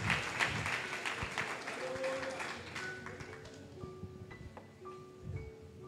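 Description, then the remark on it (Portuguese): An audience at a church service applauds Jesus with dense, steady clapping that is loudest in the first seconds, then thins out as sustained keyboard tones and murmuring voices come through. “Você pode dar um aplauso a Jesus, pode ficar de pé, vamos orar.”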